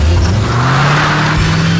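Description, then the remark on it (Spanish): A loud car engine runs, its low hum climbing slightly in pitch as it revs, with a steady wash of mechanical noise throughout the short burst. “ese sonido que te lleva a todas partes, también estás Alfa, con la más amplia variedad de marcas en la venta de autos nuevos”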